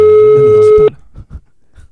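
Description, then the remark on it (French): A single steady telephone ringing tone from a call placed live on air at a radio station holds loud and even for almost a second, then cuts off abruptly, leaving a few faint murmurs afterward. “Ah, appelle, on appelle, c'est parti, c'est parti.”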